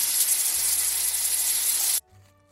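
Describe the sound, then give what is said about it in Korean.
A loud, steady spray-like hiss from a hair mousse can runs for about two seconds, then cuts off sharply, leaving near silence with a faint low hum; the mousse is used to set front bangs upright. “소리는 스프레이 같지만 최신형이라 그래요. 여러분 오해하지 마세요. 무스예요.”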